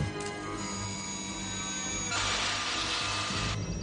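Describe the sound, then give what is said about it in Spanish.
A small electric motor whirs steadily with a mechanical, buzzing hum, swelling into a brighter, harsher grinding midway before easing back, as a security camera rotates its position, moved by the centre lever of a remote control. Moderately loud, no voices. “Después coge un control remoto y al mover la palanca del centro, la cámara de seguridad gira su posición.”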